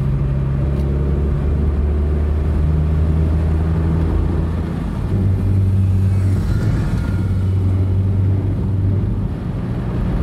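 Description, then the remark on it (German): A 50cc scooter engine drones steadily as it rides along the road and is overtaken, its buzzing pitch stepping up partway through, with constant road rumble and no voices. “Jetzt fährt Formel noch so ein, na, lass mal auf Tacho gucken, 50er Roller.”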